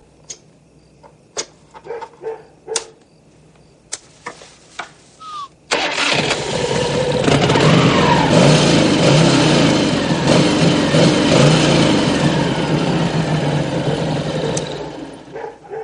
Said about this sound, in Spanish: Nick enciende su cigarro mientras David trata de arrancar la moto. Te lo he dicho. El joven se agacha y manipula los bajos de la moto.